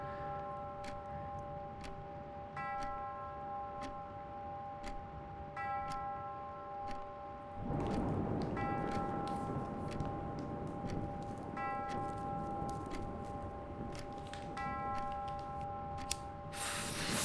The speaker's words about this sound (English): Fuck me, that's fucking deafening. Why the fuck would you hold on to that piece of shit? Sell the clock and get some fucking plumbing indoors, like, do you know what I mean?